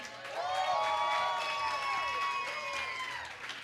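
A crowd applauds steadily for a few seconds after a performer's set, the clapping mixed with loud, high cheering and whooping voices that rise and fall throughout.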